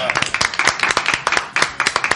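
A short burst of applause welcoming a guest on the show Remake de los 80: many hands clapping at once in a steady, dense patter of sharp crisp claps that keeps going for about two seconds at a lively, fairly loud level.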